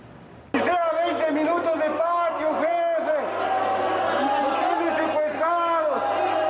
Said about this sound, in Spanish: Es el grito de malestar de cientos de reos de la cárcel de Cotopaxi, localizada a unos 90 kilómetros de Quito.